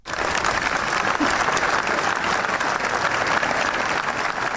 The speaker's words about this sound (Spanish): Hoy precisamente se ha celebrado ante la que era su casa ese minuto de silencio por las víctimas, por esos 10 fallecidos, un minuto de silencio que se rompía con este aplauso.